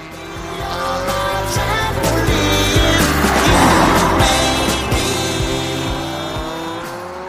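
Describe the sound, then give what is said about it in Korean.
A car roars past in the adjacent lane with booming, rhythmic music spilling from it, the engine and thumping beat swelling loudly mid-pass and then quickly fading as it pulls away. “자, 옆 차선에서 차가 달리고 있어요. 음악 소리가 쿵쾅쿵쾅 들립니다.”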